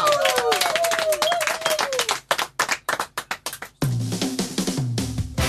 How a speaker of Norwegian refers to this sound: Alle klare? Yeah! Klapp i hendene, da!